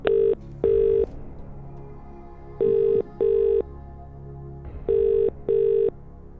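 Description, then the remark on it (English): A telephone ringing tone of a call placed to the Wing Chinese takeaway: three double rings, each pair of steady, mid-pitched buzzy tones followed by a pause, repeating evenly over a faint background hum. No one speaks. “Let's play the call to the Chinese takeaway.”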